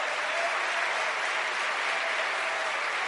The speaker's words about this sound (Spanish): Démosle ese aplauso fuerte al Señor.